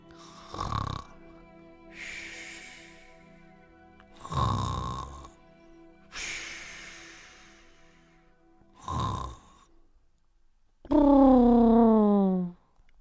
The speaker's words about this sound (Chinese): 可可一躺上床就呼呼大睡起来，他的脸很胖，睡觉的时候发出奇特的声音。